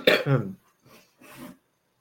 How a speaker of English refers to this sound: Honestly. You know, when I put the air conditioning on, my throat gets dry and then my nose runs. Sorry, I have to put up with this, but I feel better. Um, I haven't coughed all day, so I think it's the dust.